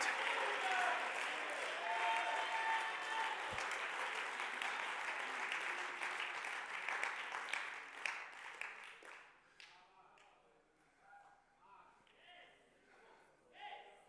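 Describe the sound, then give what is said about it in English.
A church audience at a Wednesday night service claps hands in praise, loudly and steadily for several seconds, then the applause thins out into scattered claps and fades as a voice begins speaking. “Somebody clap your hands and give him praise tonight.”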